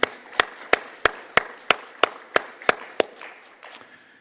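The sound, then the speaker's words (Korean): A church audience claps together for mothers on Mother's Day in a steady, even rhythm, about ten sharp, loud claps roughly three per second, then the clapping loosens and fades into a softer scatter. “우리 머더스데인데 우리 박수 한번 쳐드릴까요?”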